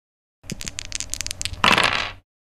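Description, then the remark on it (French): Eight dice rolled on a table: a scatter of sharp clicks and taps, then a brief dense rattle as they tumble and settle. Fairly loud, with no voices. “Fais 8 dés avec 2 de soif.”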